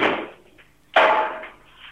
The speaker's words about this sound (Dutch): dat is dus de kast. Klinkt als een ijzeren kast